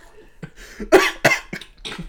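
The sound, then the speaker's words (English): A short coughing fit from a woman who is drinking and having trouble swallowing: four or five harsh, sputtering coughs in quick succession, fairly loud, the middle ones strongest, with no talking. “Oh, okay, we're at maybe a little less than one quarter of the way through, and it looks like she's having some trouble swallowing, bit of a coughing fit”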